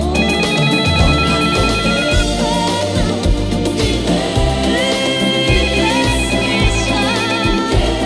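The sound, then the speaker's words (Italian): A telephone rings in repeated electronic pulses, high-pitched and steady, over a loud song with full band and bass that plays throughout. “Chi è al telefono?”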